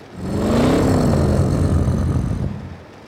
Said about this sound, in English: The Inferno kept revving its engine.